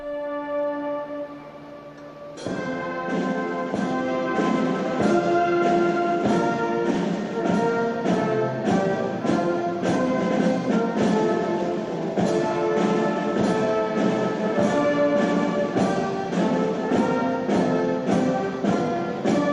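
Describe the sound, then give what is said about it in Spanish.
The military bands of the Swiss Guard and the Italian army play the Vatican anthem, honouring the Pope on a balcony: stately brass with steady, regular beats, loud, after a softer sustained opening; no one speaks over the music. “Y volvemos a escuchar el himno del Vaticano.”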